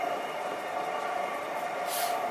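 Steady rumble and hum of a JR 323 series electric train in motion, heard from inside as it arrives at Momodani station, with a sharp hiss of air rising briefly near the end. No voices.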